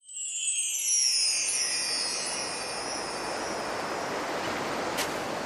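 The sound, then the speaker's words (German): A steady, full roar of churning surf and gusting wind, with thin whistling tones sliding downward at the start. It stays loud throughout, with no voices. “Die Planken eines alten Wracks knarzten im Sand vor sich hin, und der Wind wirbelte das Wasser auf.”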